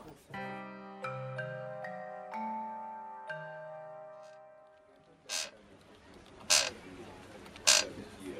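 A drawn-out, pitch-shifting creak of a chair being shifted in, followed by three sharper creaks spaced about a second apart, moderately loud.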